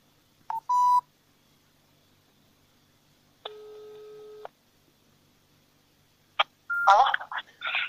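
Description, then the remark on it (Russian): A short electronic phone beep, then a single steady ringback tone about a second long on a quiet line, followed by a click and a voice answering; a call to the former chairwoman of a gardening association (SNT) in Biysk, Altai Krai. “Что висит этот номер телефона? Звоним, да.”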